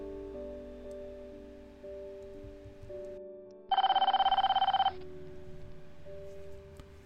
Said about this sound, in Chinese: 我电话再次响起了，电话对面的内容依然是阿婆。